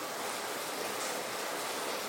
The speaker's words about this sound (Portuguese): É, começou a chover muito agora, possivelmente está vazando. Cara, tá chovendo muito.